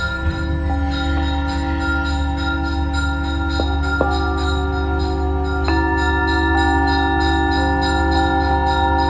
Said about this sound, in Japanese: すいませんちょっと今通りをすごい音のまた車が通っててこれね清掃車なんですよ清掃車清掃車でいいのにすみませんすっごい音